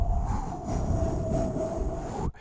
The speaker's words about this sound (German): dazu gibt es noch mal ein bisschen Windgeräusche.